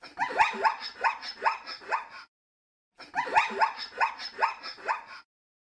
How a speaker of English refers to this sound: Today's Name That Sound sound is. A zebra!